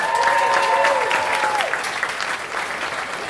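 Audience applause, a dense steady patter of many hands clapping for a few seconds, with a brief tonal whistle-like sound sliding at the start and a few faint voices mixed in.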